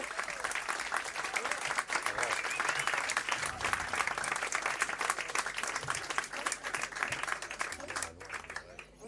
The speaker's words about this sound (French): Et je tiens à saluer et à, euh, que vous applaudissiez, enfin je vais les applaudir aussi, en fait une, rythmique exceptionnelle, tenue de main de maître